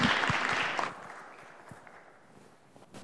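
A crowd applauds with dense, bright clapping that is loudest for the first second, then quickly thins into softer, scattered claps fading toward quiet room tone.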